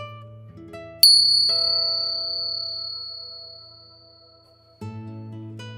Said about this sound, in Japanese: リラックスできる鐘の音を聞いていただいてからスタートです。